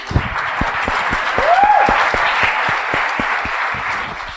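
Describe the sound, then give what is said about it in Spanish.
Loud audience applause with a steady, rhythmic beat of claps running throughout, and a brief rising whistle cutting through the crowd noise partway in. “Aplaudir con ganas.”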